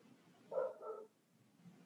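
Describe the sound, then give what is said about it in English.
A dog barks in a quick pair of short, moderately loud woofs, the second slightly softer, set against a quiet background with no one speaking. “there's a dog now even the dogs even the dogs have sounds”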